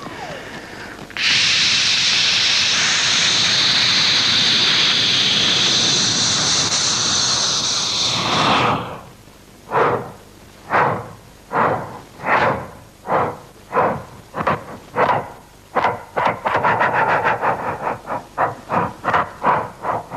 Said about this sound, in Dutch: Die man daarvoor by die lokomotief is ook nie uh lam nie en die volgende oomblik dan trek hy weg en die lokomotief sê dan net